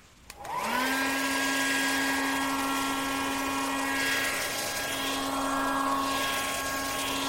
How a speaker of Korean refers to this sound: 이내 드라이기 소리가 들리기 시작했다. 분명 머리를 말리는 소리였다.